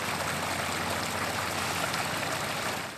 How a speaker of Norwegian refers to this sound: Hvis du syns New York var bråkete før, så er det enda verre nå. Nederst på Manhattan er det lyden av generatorer som dominerer. I bygning etter bygning pumper de ut flomvann som har fylt kjellere med en illeluktende blanding av kloakk og fyringsolje.